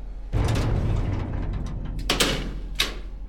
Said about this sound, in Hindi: अंदर घुसते ही station master ने सबसे पहले डिब्बे का दरवाजा अंदर से बंद किया